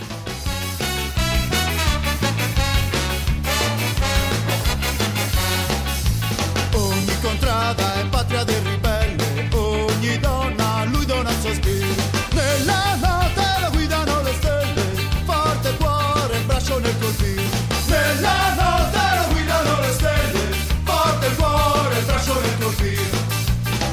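A full band plays a rousing Italian Resistance song, broadcast on the radio on 24 April, the eve of Liberation Day. It is loud and steady throughout, with dense layered instruments and a driving rhythm that never drops out.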